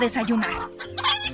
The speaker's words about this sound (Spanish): Por su parte, Minuto adelantaba el tiempo algunos minutos, pero las gallinas volvían a escuchar a los gallos cantar